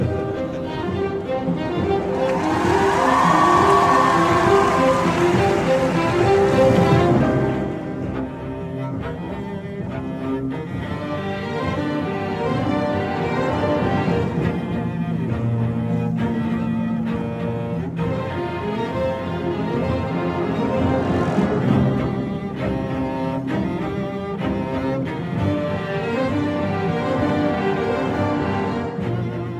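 The Symphonia Pop Orchestra, which collaborates with Overlook Event, plays a TV-series soundtrack medley: full, sustained harmonies swell loudly in the opening seconds, then settle into a steady, rich instrumental texture with no voices.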